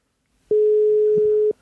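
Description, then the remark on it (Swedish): A single steady telephone ringback tone while calling, an even mid-pitched beep lasting about one second, clear, with brief silence before and after and no one speaking. “vi, vi, ringer och ser om han svarar.”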